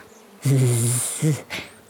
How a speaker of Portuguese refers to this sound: Não te movas, zumbiram as duas moscas.